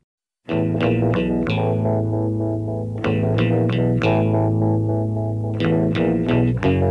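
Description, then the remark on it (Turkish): The instrumental intro of a 1974 pop hit: bright, chorus-tinged strummed chords in a steady, loping rhythm, loud, with no singing yet. “Kısa bir müzik arası veriyoruz.”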